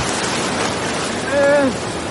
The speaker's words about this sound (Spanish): El oleaje se mece fuerte llegando hacia él.